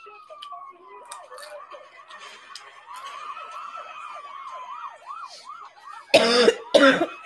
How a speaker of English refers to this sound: Did you hear the sirens from miles away?